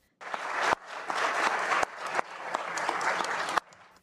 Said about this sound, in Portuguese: Barroso foi aplaudido em vários momentos.